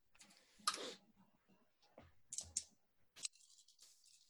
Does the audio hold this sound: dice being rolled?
yes